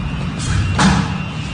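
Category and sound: household object, door being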